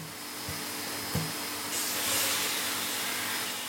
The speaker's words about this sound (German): Mike Thomas vom Skiservice Bayreuth lässt die Ski von allen, egal ob Profi oder Anfänger, erst durch seine Schleif- und Strukturmaschine laufen, bevor er ein Grundwachs aufträgt.